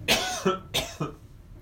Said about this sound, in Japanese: ごめんなさいちょっと咳が出ましたね